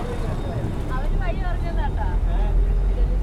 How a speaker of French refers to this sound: T'as les rickshaws, t'as les mecs, t'as les camions, scooters, les bus, t'as les voitures. ils vont tous dans tous les sens. La route, elle est un peu défoncée. Et euh, je pense qu'ils vont jamais au-delà de 55 km/h.